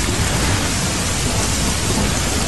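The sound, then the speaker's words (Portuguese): Heavy rain from a storm pours steadily in Rio de Janeiro in a dense, continuous hiss with a deep low rumble of thunder beneath it, recorded on a phone held out of a window, with no voices. “Vou chegar na outra janela e vocês vão ouvir a tempestade que tá caindo aqui fora.”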